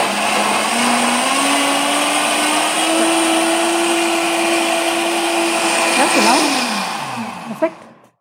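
A lidded blender, started by turning its dial, mixes a coconut milk smoothie for about 30 seconds, whirring loudly and steadily, its motor whine climbing in pitch as it spins up and holding for several seconds, then winding down and ending with a sharp click.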